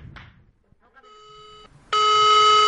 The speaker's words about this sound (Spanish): en un edificio podemos ver un bajo y de repente escuchamos un sonido. Puede ser el sonido de una contestadora, una contestadora que recibe mensajes de otro mundo.